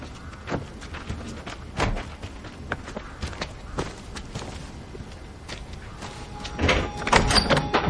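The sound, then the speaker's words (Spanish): Two men get out of an SUV stopped in front of a house: car doors open and shut, followed by a steady series of footsteps crunching along as they walk toward the house, with a louder burst of movement and a thud near the end. “Sonny y el otro hombre se apean del coche y caminan hacia la casa.”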